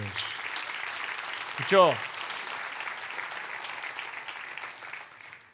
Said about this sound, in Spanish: Dele otro aplauso a Dios